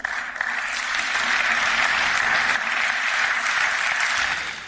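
Sustained applause from a large crowd in the European Parliament chamber for Roberta Metsola after her election as President of the European Parliament, a steady dense wash of clapping that holds at an even, loud level for several seconds before starting to ease off at the end.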